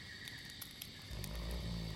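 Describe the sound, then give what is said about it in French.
A single low, rumbling snore from a sleeping woman begins about halfway through, fairly loud, after a quiet stretch with faint high background hiss. “Je lui fais une déclaration plus que larmoyante et la meuf elle me ronfle à la gueule, super.”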